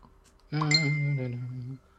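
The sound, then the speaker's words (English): A phone's Facebook notification chime sounds once, a bright, steady electronic tone with a rich ringing quality that holds for just over a second, then cuts off. No one speaks over it. “Oh, Facebook as well. Shut up, phone.”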